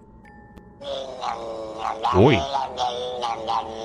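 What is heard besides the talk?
cat growling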